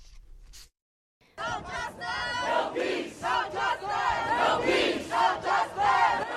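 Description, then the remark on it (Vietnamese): A large crowd of protesters in US cities such as Los Angeles, Miami and Chicago chants "I can't breathe", George Floyd's last words, loudly in a steady rhythmic cadence, many voices shouting in unison with pulsing beats, following a brief moment of quiet at the start. “Từ Los Angeles, Miami cho đến Chicago, những người biểu tình hô vang tôi không thể thở được những lời nói trước khi chết của George Floyd khi anh bị một cảnh sát da trắng dùng đầu gối chặn cổ.”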